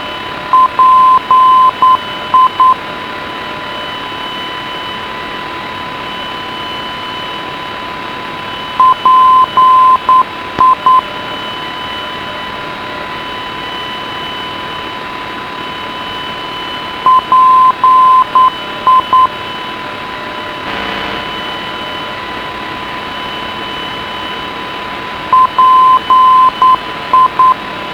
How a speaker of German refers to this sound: Dies war das ungerichtete Funkfeuer des Flughafens Schwerin-Parchim auf 333 Kilohertz. Als Morsezeichen wird die Buchstabenfolge PI gegeben, was auch dem Rufzeichen des Senders entspricht.